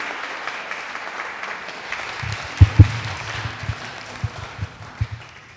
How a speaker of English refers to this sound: But can we give these guys a round of applause and welcome them to Holy Trinity?